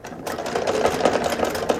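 A sewing machine runs at a steady pace, its rapid, even stitching clatter fairly loud after a brief quiet start, with no voices.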